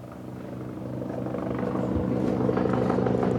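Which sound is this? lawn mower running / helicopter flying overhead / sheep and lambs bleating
helicopter flying overhead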